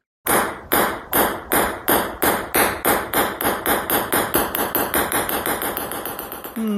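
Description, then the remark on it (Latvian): A table tennis ball bounces on a hard surface, its sharp, clicky hits coming faster and closer together as the bounces shrink, then settling into a rapid rattle before stopping. “Galda tenis vai pingpongs.”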